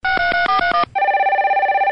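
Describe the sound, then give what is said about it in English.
A quick run of about six electronic phone beeps, like keypad buttons being pressed, followed by one longer steady tone. Clear, with no talking. “Pressing buttons and the word whore.”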